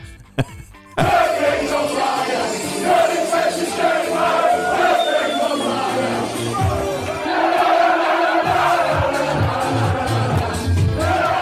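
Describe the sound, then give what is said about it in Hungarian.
A crowd of Wigan football supporters in a pub sings a chant together, loud and sustained, with many voices blending into one steady melodic line after a brief quieter start. “Hallgassunk is bele először, a Vigán szurkolók előadásában jön egy pubból.”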